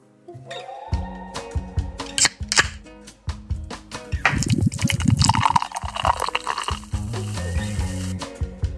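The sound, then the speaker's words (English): A cold can of Olipop soda being cracked open: a few sharp metallic clicks, then a hissing rush of fizz and pouring liquid that crackles and bubbles for several seconds. No talking. “That, my friends, is the sound of me popping open a cold can of Olipop.”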